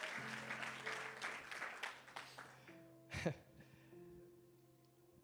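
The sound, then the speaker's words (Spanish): An audience applauds for all of Puerto Rico present in a dense, steady burst for a few seconds while low sustained keyboard chords hold underneath; the clapping then fades, leaving the music and one sharp knock. “Un aplauso a todo Puerto, Rico que está en la casa.”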